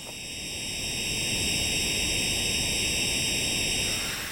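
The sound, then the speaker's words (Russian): A recreated tinnitus sound shared by a member of the Tinnitus Talk forum: a steady, loud roaring hiss layered with several thin, high-pitched ringing tones, holding constant for the whole few seconds with no speech. “This is my tinnitus.”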